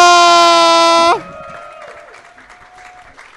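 An audience applauds and cheers, a steady crackling clapping that follows a loud blaring sustained tone in the first second and carries on more softly to the end.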